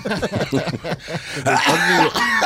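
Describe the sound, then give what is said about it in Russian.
A man coughs loudly toward a professor in a run of several harsh, voiced bursts, the last ones drawn out and throaty like forceful throat clearing. “кашляет в сторону профессора.”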